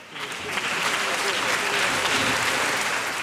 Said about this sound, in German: Zunächst einmal Applaus für den Gewinner.